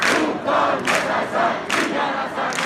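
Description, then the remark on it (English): A group of young women at a protest in Iran chanting together, loud and steady, their voices rising in rhythmic bursts about every second in a forceful, repeated cadence, chanting that machine guns and cannons have no effect on them. “I mean, there are a group of young women chanting, machine guns and cannons have no effect on me.”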